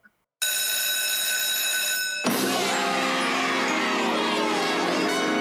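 A loud electric recess bell rings continuously, starting with a steady metallic tone and shifting after about two seconds into a harsher, clattering ring that keeps going to the end. No one speaks.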